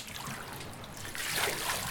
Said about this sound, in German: Wir schaffen es alle zusammen gerade so, das zum Bersten gefüllte Netz ins Boot zu wuchten. Das Boot liegt jetzt so tief, dass Wasser über die Kante schwappt.